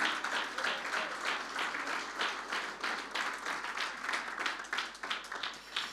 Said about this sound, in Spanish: Si le da un fuerte aplauso al Señor, mucho mejor, hermano.